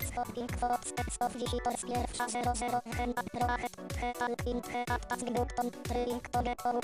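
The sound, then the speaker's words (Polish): A video game level-complete sound effect from the game's sound test, which plays when the level is finished after all enemies are defeated: a loud, upbeat electronic jingle with a steady pounding beat, repeated downward-sweeping bass hits and bright chiming tones, playing without any talking. “To jest taki dźwięk, który to oznacza.”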